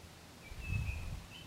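Faint, thin high-pitched bird calls, two drawn-out whistles a moment apart, over a low outdoor rumble of wind. No one speaks.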